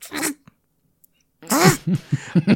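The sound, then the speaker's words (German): A voice mimics a lightly rung home doorbell chime with a breathy burst, a pause, then a sung, wavering tone, followed by short voiced bursts like chuckles. “Und wenn du unsere Klingel nicht fest anklingelst, dann, also unsere Klingel ist so, bing, also so, so lautes, und wenn du es nur leicht anklingst, ist so,”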